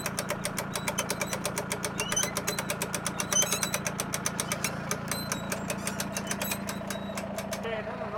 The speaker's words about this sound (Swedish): som sitter i traktorn i full färd med att backa ner båttrailern i havet